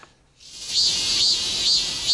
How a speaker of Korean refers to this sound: 그래서 밖에서 이 참매미와 말매미 울음소리를 준비했다고 하는데요. 먼저 참매미 소리부터 좀 들어볼까요?